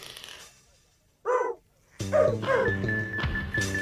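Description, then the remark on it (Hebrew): A dog gives a single loud bark, then barks twice more as upbeat music with a steady beat starts up underneath, in a Hebrew children's song about pulling up a carrot. “אץ ורץ הב הב הכלב אל הבת לעזר.”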